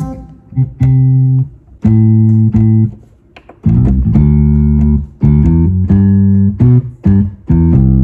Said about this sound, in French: La piste 2, je vais choisir un son de basse, par exemple, parce qu'il faut bien sûr de la basse.